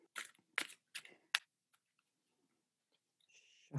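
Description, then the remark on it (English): A deck of cards being shuffled, with four quick papery bursts of riffling and snapping, then near silence before a brief higher whirring flutter at the end. “shuffly, shuffly, shuffly, shuffly.”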